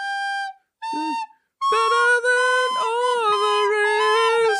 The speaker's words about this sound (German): wo ist denn deine Flöte? Hier, warte. Can you blow my whistle?